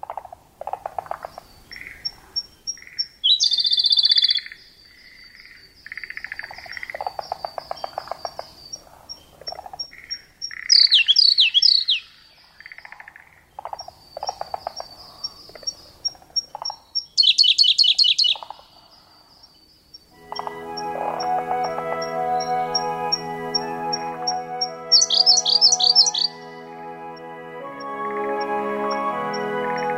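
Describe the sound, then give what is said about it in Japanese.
A Siberian blue robin sings short, bright trilled bursts at intervals, clear, over a steady high insect-like drone and other softer bird calls in the woodland background at Hebusu Pond, Kawauchi Village, Fukushima Prefecture, Japan. “朝の小鳥今朝は福島県川内村のヘブス沼から小瑠璃のさえずりをお届けしました”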